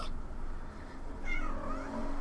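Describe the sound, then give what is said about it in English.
A domestic cat lets out a drawn-out, wavering meow partway through, over faint background hiss and low hum, with no one talking. “is now the cat whisperer”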